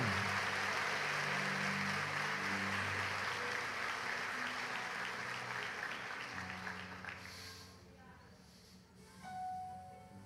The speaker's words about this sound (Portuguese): Quantos podem dizer amém e dar um forte aplauso a Deus nesta bendita manhã?